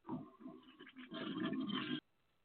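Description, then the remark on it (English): A brief toilet flush: a gurgling rush of water that swells into a loud, steady whoosh for about a second, then cuts off abruptly into quiet. “Okay, toilet Ooh. flush man.”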